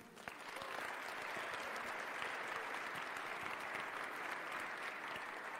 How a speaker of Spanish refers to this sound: Vamos pues, ya le dimos un aplauso a San Felipe, ahora le vamos a dar un aplauso a nuestra luz.